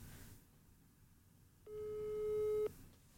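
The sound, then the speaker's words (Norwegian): A single steady electronic telephone tone sounds for about a second, clear and sustained, the ringback heard while calling sexologist Iselin Guttormsen, over a low background rumble with no talking. “der tenkte jeg rett og slett at vi bare skulle ringe sexolog Iselin Guttormsen og høre hva hun har å si om det.”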